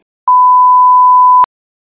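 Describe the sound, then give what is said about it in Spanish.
A single steady censor bleep, a pure high-pitched tone lasting just over a second, loud and clean, starting and ending abruptly with silence on either side. “Lo voy a censurar en estos momentos.”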